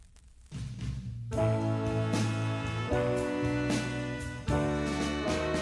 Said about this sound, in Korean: 아, 이 잡음까지도 멋있네요. 네, 실제로 저는 이 앨범을 LP로 구입했었는데 LP로 구입했음에도 그 LP 노이즈가 또 들어 있어요 추가로.